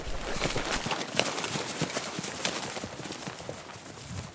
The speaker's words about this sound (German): Seine dicken Stiefel pflügen durch das kniehohe Gras. Der Atem ist schwer.